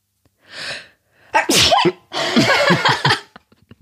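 A loud sneeze: a breathy intake, a sharp explosive burst, then a long noisy, drawn-out follow-through, ending in a few faint clicks and sniffs.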